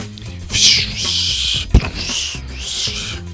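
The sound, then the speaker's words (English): A voice imitates jetpack flying noises: a sustained, hissy whoosh over a low buzzing hum that wavers in pitch for a few seconds, broken by a brief sharp pop midway. “the jetpack he put the jetpack on and began making flying noises.”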